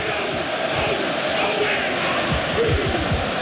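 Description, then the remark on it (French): A dense, roaring stadium crowd sings over a haka, covering its sound, many voices singing and shouting together in a continuous loud wash, with rhythmic chanted cries rising through it. “Ça siffle ou ça chante plus exactement Ça chante.”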